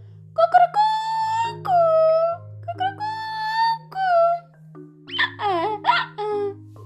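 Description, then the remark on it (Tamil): Several drawn-out rooster-like crows, rising and falling, probably sung by a human voice imitating a rooster, repeated in close succession over a steady low musical drone. “யார் இப்படியெல்லாம் கத்துவா கண்டுபிடிச்சிங்களா அது சேவல்”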